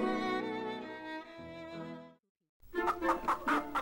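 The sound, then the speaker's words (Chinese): A hen clucks in a quick run of four or five raspy bursts, following a short sustained musical phrase and a brief silence. “小母鸡路易斯仍旧渴望冒险。”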